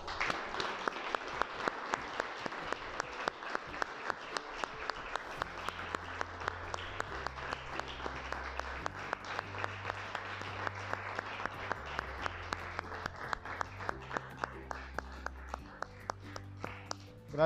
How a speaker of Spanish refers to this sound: ¿Le puedes dar un aplauso al Señor?